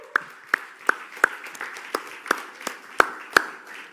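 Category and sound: crowd, audience applauding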